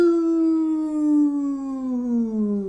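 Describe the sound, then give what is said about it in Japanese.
A voice imitates the whistle of a stone dropped to the bottom of a well, the sound a rubbish bin was rigged to play when trash is put in: one long, steady, slowly descending tone held for nearly three seconds, fairly loud, with no other sound around it. “ゴミ箱にゴミを入れると、音が鳴るようにしたんですよ。どういう音かっていうとですね、あの、井戸の底に石を落としたような音です。”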